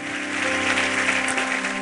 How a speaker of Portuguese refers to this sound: Vamos aplaudir o Senhor, vamos ficar em pé, vamos embora.